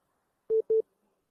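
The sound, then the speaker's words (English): Two quick, identical electronic beeps from a phone line signalling an incoming call, a steady mid-pitched tone pulsed twice in rapid succession, clear, with silence around them and no voices. “there's a call.”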